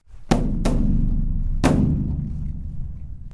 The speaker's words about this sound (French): Il lâche simplement le marteau en bois suspendu qui frappe la cloche en produisant un son clair et résonnant. Il réalise que plus la frappe est légère, plus le son fait écho.